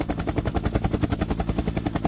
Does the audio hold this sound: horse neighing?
no